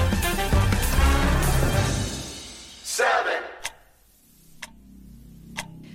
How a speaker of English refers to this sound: The clock is ticking and its hands are getting close to midnight, or in the case of the doomsday clock, to the end of humanity.